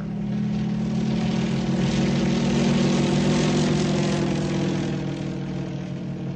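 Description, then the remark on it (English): A propeller airplane engine drones steadily and loudly in flight, a continuous low throbbing hum with a rough, buzzing edge that holds at an even level throughout, with no voices. “In the air.”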